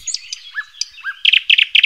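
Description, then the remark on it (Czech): A nightingale sings, rising whistles and slurred notes giving way to a rapid, loud run of repeated chirps. No voices, just the bird alone. “Tak takhle krásně zpívá Slavík.”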